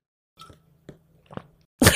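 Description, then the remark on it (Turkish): Someone drinks water into a very good microphone that picks up the swallowing sound: three wet gulping swallows at an even pace, followed by a sudden loud, breathy exhale at the end. “o, onun sesi de o yutkunma sesi de çok iyi bir mikrofon olduğu için dur şimdi göstereceğim size gerçekten su içerek göstereyim dur.”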